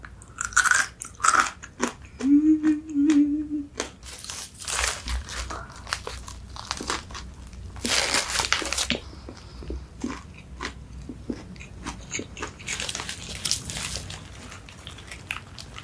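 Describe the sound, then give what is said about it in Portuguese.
Loud crunching as someone bites into a crispy meatless vegetarian burger and keeps chewing, a steady stream of crackly bursts with a couple of heavier bites, mostly free of talking. “Tem algumas pessoas que podem estar estranhando, mas eu sou vegetariana, então obviamente não é um hambúrguer de carne. Mas tá muito gostoso, sério.”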